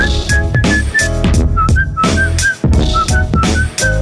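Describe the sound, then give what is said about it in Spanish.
A clear, high whistled melody of short repeated notes rides on top of loud, busy music with a steady beat, staying prominent through the whole stretch. “Ese chiflido, ese chiflido”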